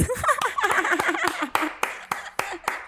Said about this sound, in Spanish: Aplausos.